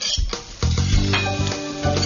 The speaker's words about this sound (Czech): Já pardon, jenom, že se takhle oddaluju od mikrofonu, já už lovím ty šišky.